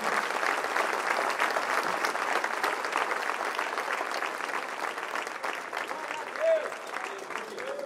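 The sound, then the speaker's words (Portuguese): An audience applauds steadily for the people coming forward to the front, a dense, even wash of many hands clapping at a constant loudness for several seconds, with a brief voice rising faintly near the end. “vamos aplaudir essas pessoas que estão vindo, então, vem, sem constrangimento, vem.”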